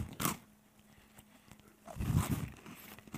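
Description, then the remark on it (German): A crisp crunch of teeth biting into a hard speculoos (Spekulatius) cookie, followed by a second longer burst of crunching and chewing, loud with no talking. “Ähm, und jetzt dürft ihr euch vorstellen, oh, wie gut der riecht und wie schön man da reinbeißen kann.”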